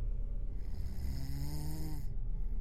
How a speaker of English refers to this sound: And although the big man grunted a grumpy, All right, all right, having survived several bombings before, seconds later, his snoring returned.